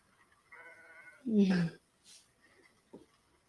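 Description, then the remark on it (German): A burning sheep bleats once in a loud, wavering cry, preceded by a softer nasal call and followed by a few faint clicks and rustles. “Der Noob läuft und sieht das Schaf, wo auf der anderen Seite brennt.”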